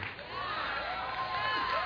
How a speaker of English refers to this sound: Good. No, no, don't clap.